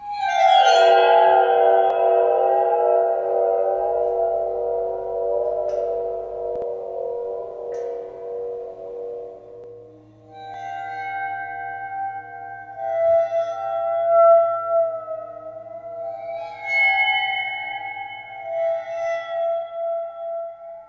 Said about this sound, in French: Et il y a un autre instrument dont j'aimerais parler également, c'est le waterphone, qu'on peut entendre d'ailleurs dès 1979 dans la bande-son d'Amityville, la maison du diable. On écoute un extrait tout de suite de cet instrument chelou.